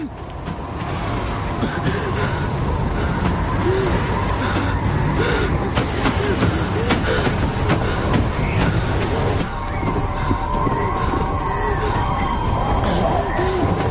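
A steady, loud roar of blizzard wind rushes without pause across a snowy plain at dawn, dense and full, with faint whistling swells rising and falling through it.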